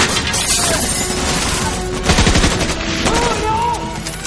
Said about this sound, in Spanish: Militares armados ocupan los patios y los pasillos. Bond dispara a las tuberías de gas y se deshace de varios soldados. Los soldados disparan desde el patio.